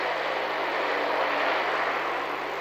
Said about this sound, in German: Hubschrauber macht eine, einen fantastischen Start, säbelt einige Baumspitzen hier vor uns ab und verschwindet in gleiche Richtung.